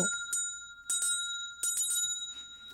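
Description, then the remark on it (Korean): A small bell is rung softly and hesitantly, over and over, with light taps in loose clusters and its bright, ringing tone lingering between strikes. It is fairly quiet, and no one speaks. The bell is rung on a show to introduce a quiz question. “뭐왜 맨날 이렇게 자신 없게 종을 쳐?”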